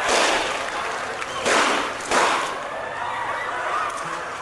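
Three sharp gunshots ring out in quick succession, the last two about a second apart, loud over a noisy, crowded outdoor background, heard in film footage as a man steps up just behind Rabin, lifts his right arm and fires, a few feet from the car Rabin was about to get into.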